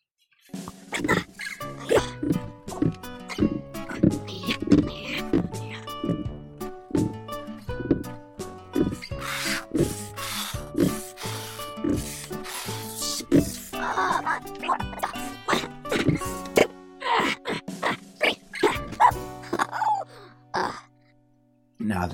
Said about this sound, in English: Excuse me for a moment while I do some pull ups.